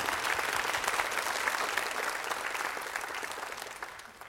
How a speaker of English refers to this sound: Come on and clap your hands for glory to the Lord.